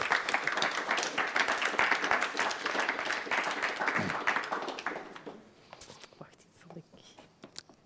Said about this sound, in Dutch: Bibliotheek Den Haag. Meer dan 750.000 boeken. Applaus graag voor Saskia de Koster.